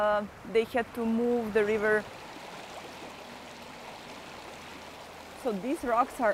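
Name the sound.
river water flowing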